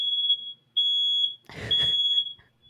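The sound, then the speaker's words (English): A smoke alarm shrieks in loud, steady high-pitched bursts, sounding three times in quick succession with a brief rustling clatter partway through. “Oh, yeah, that's the fire alarm going off.”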